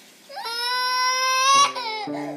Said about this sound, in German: Zum Beispiel die quengelnden Kinder oder den Nachbarn, der seit zwei Stunden Klavierspielen übt das klingt dann alles ganz dumpf und leise.